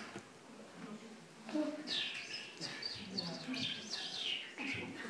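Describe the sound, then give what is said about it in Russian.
A person whistles and trills in imitation of birdsong, a run of rising and falling chirps and warbles, fairly soft, with no other talk over it. “Есть еще такое искусство, называется искусство петь э, голосом птиц.”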